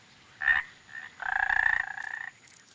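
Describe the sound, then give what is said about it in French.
A midwife toad, the species in which the male carries the eggs, calls with clear, high, whistle-like notes: a short beep, a fainter one, then a longer slightly pulsing tone, with no voices. “Et il y avait aussi ce côté de Lalita Coucheur, euh, ce côté un peu sympa de. Bah, c'est le mâle qui porte les œufs.”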